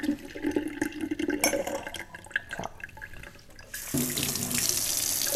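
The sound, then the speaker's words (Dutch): A kitchen tap left running flows with a steady, hissing rush of water, splashing into a sink; after a few seconds the flow grows stronger and brighter, continuing unbroken to the end. “Zo erg dat ik de kraan gewoon aanlaat.”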